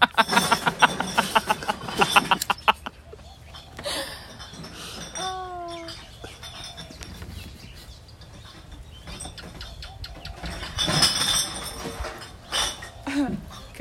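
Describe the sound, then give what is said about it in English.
Glass clinks and clatters as things are cleared away, a busy burst at the start and another sharp flurry near the end, with muffled voices and a brief laugh in between. “People cleaning up. Sometimes it gets loud in my audio.”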